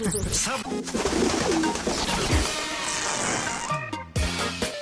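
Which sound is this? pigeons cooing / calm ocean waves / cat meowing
pigeons cooing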